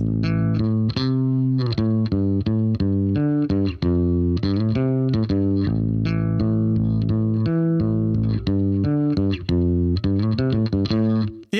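A bass guitar plays a song's outro line: a busy, repeating line of quick plucked notes, loud and steady throughout with a slightly distorted, effected tone and no voices over it.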